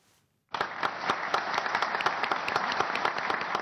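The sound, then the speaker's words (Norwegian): An audience bursts into sustained applause after a brief quiet moment as former rivals Ashraf Ghani and Abdullah Abdullah embrace after agreeing on the Afghan presidential election, Ghani becoming president; many hands clap in a dense, steady wash with sharper individual claps standing out, loud and continuous to the end. “Til applaus fra publikum omfavner to tidligere rivaler hverandre.”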